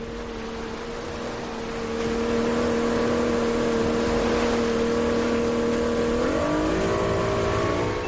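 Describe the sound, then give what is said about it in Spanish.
A motorboat carrying eight passengers and two crew departs out to sea toward Isla Espíritu Santo, its engine droning steadily, the pitch holding level before shifting as the throttle changes, with broad rushing water and wind noise filling the background. “La lancha parte, dos horas y media de navegación mar adentro nos esperan.”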